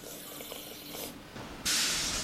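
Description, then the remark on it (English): Coffee pours into a cup: a soft, uneven trickle that suddenly swells into a loud, steady rushing hiss for the last half-second. No one speaks. “More coffee first.”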